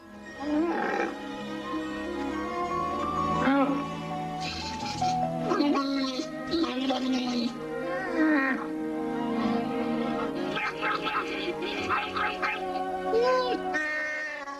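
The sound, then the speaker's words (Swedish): Wookiee growls and moaning roars, like a grumbling bear, repeat loudly for the whole stretch, with several creature voices overlapping and calling back and forth, from the Holiday Special, largely without subtitles. “På wookiesarna, alltså de gör ju bara det här lätet.”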